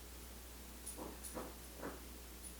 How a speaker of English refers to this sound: That's a dog, you know, scratching the carpet.